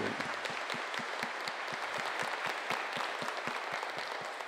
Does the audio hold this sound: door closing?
no